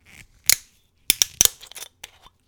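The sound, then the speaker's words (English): A screw cap is twisted off a John Jameson and Sons whiskey bottle: a quick run of sharp, crisp clicks and snaps, one at the start, then a tight cluster of ticks, with no voices. “Okay, let's open this bottle. It's got a screw cap.”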